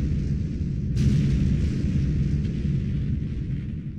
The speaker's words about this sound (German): Das Feuerwerk ist startklar? Aber sicher, du kannst es hören in 3, 2, 1.